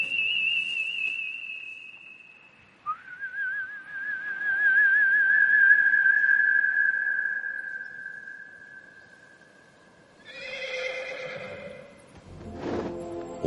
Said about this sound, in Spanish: caballo blanco galopa hacia el silbido de Gandalf.